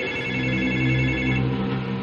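A telephone in a house, not connected to the line, rings again loudly, a steady, sustained tone that continues without a break from start to finish, with no voices present.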